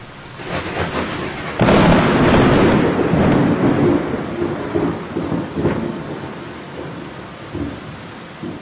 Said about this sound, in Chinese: 这声雷声之后。十多分钟，雨就停了。